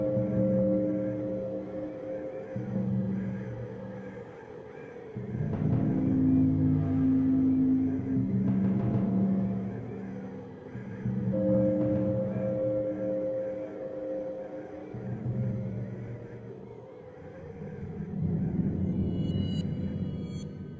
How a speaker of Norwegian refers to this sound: Og det er skating i space. er ganske spacey, om, om, om jeg kan si det sånn. Og musikken som vi skal snakke om nå hvert øyeblikk, jeg må bare spille av musikken fra denne banen her. Ta og hør.